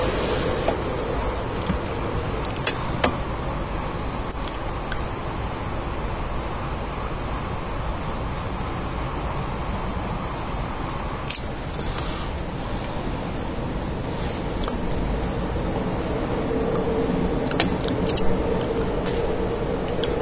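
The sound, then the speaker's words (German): A train rumbles steadily for the whole stretch on a day with hardly any wind, a constant, even wash of low noise with no voices and only faint small clicks now and then. “Heute hört man mal wieder den Zug, obwohl eigentlich kein Wind ist.”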